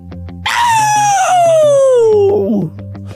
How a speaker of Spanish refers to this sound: Ese, grito hubiera matado a Charlie.